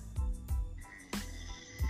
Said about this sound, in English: But you can hear me snore. You got a frozen snore.